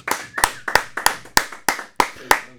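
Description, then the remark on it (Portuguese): A short round of applause: about eight crisp, sharp hand claps in a steady, even rhythm, each one loud and distinct, with no voices. “Uma salva de palmas!”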